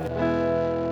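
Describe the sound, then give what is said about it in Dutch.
A single sustained electric guitar chord rings out loud, strummed once in E standard tuning with a slightly distorted, effects-processed tone and no voices. “Dus dat is E-standaard, klinkt hier.”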